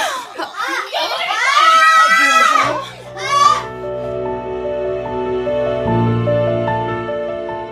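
A child's shrill, wavering scream rings out loudly from the children's room for a few seconds, breaks off, then flares once more briefly before sustained music takes over.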